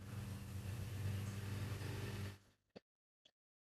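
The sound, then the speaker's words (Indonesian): A motorcycle engine passing outside drones loudly and steadily for about two seconds, then fades away, followed by two brief sharp clicks in the quiet. “Suaranya turun dia dia mengikuti tadi ada suara motor ya ini.”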